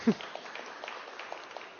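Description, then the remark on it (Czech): An audience claps together in a soft, steady patter of many hands, applauding an absent child, continuing evenly for a couple of seconds. “Taky aspoň zatleskáme, třeba se kouká přes internet.”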